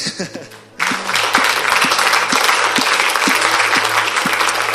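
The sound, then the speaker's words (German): A brief voice is followed by an audience breaking into loud, dense applause for a person who has chosen to begin life with Jesus, holding steady to the end, with a faint, regular low thump beneath the clapping. “Und äh, lass uns da erstmal kurz einen Applaus geben.”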